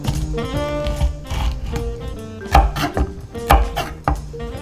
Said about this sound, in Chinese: 接着我们处理新鲜辣椒，这次我准备了朝天椒、魔鬼椒和小米辣椒，三种辣椒提供了不同程度的辣度和香味。可以使酱料的辣味更有层次和深度。把地头切除，如果比较大的辣椒可以切成两半，方便等一下用果汁机打碎。